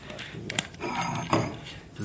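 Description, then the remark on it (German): A bottle of sparkling water is twisted open, with a couple of sharp clicks and a brief hissing fizz, followed by light clinking handling sounds. Soft voices murmur faintly underneath. “Dann machen wir das auf. Wie mich das das ist natürlich jetzt mit Kohlensäure.”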